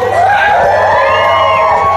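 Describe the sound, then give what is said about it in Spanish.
An audience in a Cinemex Platino cinema cheers and whoops loudly when asked to make noise, many voices shouting over one another in a dense, steady roar that lasts the whole two seconds. “A ver si pueden hacer ruido para que nos crean que estamos aquí con gente”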